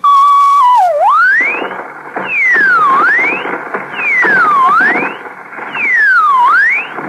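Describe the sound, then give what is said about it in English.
A loud radio jamming signal for Operation Screamer, played from a tape and meant to jam military frequencies: a piercing electronic tone swoops down and back up in four repeated V-shaped sweeps over a harsh, buzzing static, with no voices. “I guess we can do without the soap operas if it jams their military frequencies”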